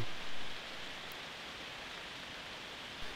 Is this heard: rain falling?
yes